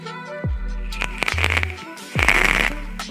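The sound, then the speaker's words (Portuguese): A vape atomizer crackles and sizzles as it boils its liquid, coming in two bursts of dense, gritty popping, each opening with a low, dropping hum. No one speaks. “Ele faz barulho, cara, mas é o barulho dele fervendo o líquido”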